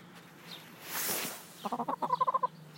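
A hen named Henriette clucks in a quick run of about ten short, rhythmic notes, moderately loud, preceded by a soft rustling hiss.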